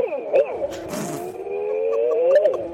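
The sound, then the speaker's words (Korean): A voice imitates a daegeum, a Korean traditional (gugak) bamboo flute, holding a steady, wavering hum with a breathy gust of air early on, fairly loud for about three seconds. “예, 일단 대금. 지금 저 국악기 예, 맞습니다.”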